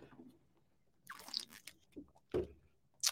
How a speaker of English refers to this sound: let me take a drink of water first.